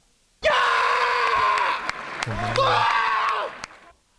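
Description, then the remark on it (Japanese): A loud, sustained shouted scream, the rallying cry of a table tennis player, strained and harmonic-rich, lasting several seconds with a brief break and sharp percussive clicks, set against a faint crowd-like background. “ええー、ちょっとこれは張本さんをねよりな何段増しにした感じの絶叫じゃないですね絶叫です、ね、すごい。”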